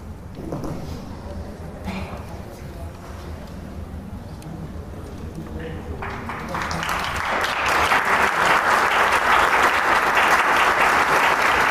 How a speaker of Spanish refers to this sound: Él es el concertino, el maestro Ismael Estebané, quien acaba de salir y, recibió el aplauso del público.